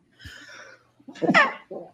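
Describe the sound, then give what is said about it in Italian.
A single sharp sneeze bursts out after a soft breathy inhale, fairly loud, followed by a short exhaled breath. “Salute. Grazie.”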